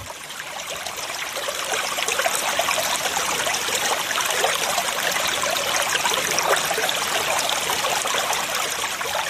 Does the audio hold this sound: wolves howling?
no